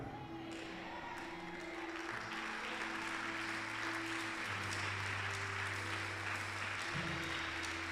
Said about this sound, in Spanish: La gente valiosa aplaude al Señor con ganas.